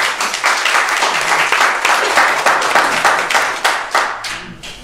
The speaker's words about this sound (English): And so what we've done here today, I think everybody in this room needs to be applauded. And I appreciate each and every one of you. Thank you.